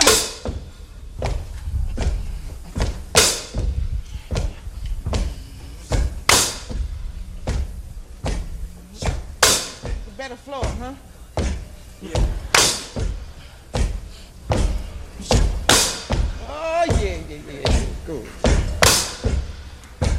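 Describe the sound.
A live song driven by loud, heavy stomps landing roughly once a second in a steady beat, with a lone voice singing wavering phrases over the thumping rhythm.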